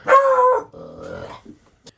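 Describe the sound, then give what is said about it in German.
A dog gives a loud, drawn-out bark, followed by a lower rumbling growl, then a few faint rustles before falling quiet. Nobody speaks. “Hunde sind auch gut gegen Einsamkeit.”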